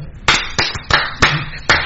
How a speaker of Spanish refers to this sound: Ah, espérame, se me, se me, fue el aplauso.